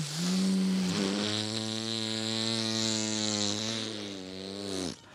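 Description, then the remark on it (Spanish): A voice imitates an airplane in flight with a steady, buzzing hum that holds one low pitch for about five seconds, dipping slightly early on before cutting off abruptly. “Y luego ya iba el avión así.”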